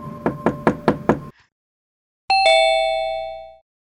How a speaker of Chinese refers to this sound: 难道今天妈妈忘记锁门了吗？小雅就轻轻地敲了一敲门